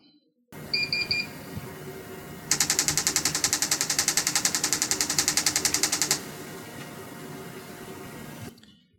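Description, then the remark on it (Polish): A TMS brain stimulator fires a rapid, evenly spaced burst of sharp clicks lasting a few seconds, loud, rattling like machine-gun fire over a steady low electrical hum. It is used in antidepressant therapy, where a patient receives 1600 impulses per session. “Trochę brzmi jak seria z karabinu maszynowego. I do takiego efektu dźwiękowego należy się niestety przyzwyczaić.”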